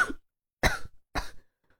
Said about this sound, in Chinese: 钟离张口，发现嗓子又干又疼，声音也有些沙哑。咳了几声，稍作喘息，才接着说